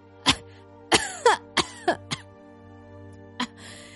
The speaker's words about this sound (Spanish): Frodo se despertó casi inmediatamente, tosiendo y farfullando.